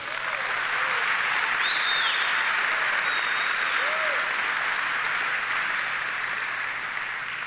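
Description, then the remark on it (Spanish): A church audience applauds the Lord steadily, a dense wash of clapping that holds at full strength for several seconds and eases slightly toward the end, with a few faint cheers mixed in. “Ahora, denle un aplauso al Señor.”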